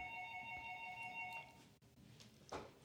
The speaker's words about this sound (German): Das war unsere Klingel, lasst euch nicht ablenken dadurch. Hm. Hoffentlich nicht für uns.